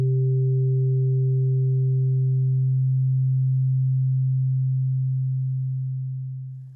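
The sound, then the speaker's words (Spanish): A low pure fundamental tone sounds together with its fainter third harmonic above it; the upper tone fades away midway while the steady low tone continues alone before tapering off. “Por eso es tan importante el sonido 3 de la serie, porque al ser el sonido más cercano, diferente al fundamental, genera una mayor consonancia y, al escucharlos juntos, percibimos estabilizado el sonido 1 como centro.”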